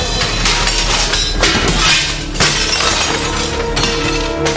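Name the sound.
window glass shattering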